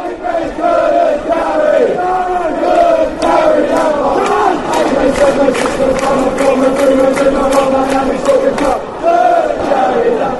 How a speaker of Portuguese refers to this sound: Vamos ouvir a música em homenagem que um dia já foi muito cantada em Upton Park.